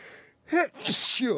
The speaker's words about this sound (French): Tu sens un bel éternuement à la radio, c'est toujours un, superbe truc.